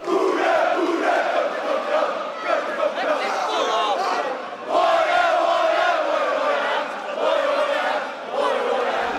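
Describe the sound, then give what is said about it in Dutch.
A large crowd of football supporters chants together in a stadium two weeks before a derby, loud, sustained voices rolling on continuously with a brief dip midway before surging back to full volume. “Ziezo, twee weken voor de derby en ze zijn er al, die supporters”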